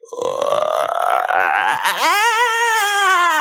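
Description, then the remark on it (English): A person vocally imitates a creaky door: a rough, rattling creak that slowly rises in pitch, then turns into a long, wavering squeal, loud. “I, I'll go first though, with a creaky door.”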